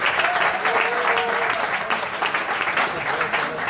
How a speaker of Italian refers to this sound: Oggi è stata una giornata importantissima, applauso a Fontana e a Cecchetti.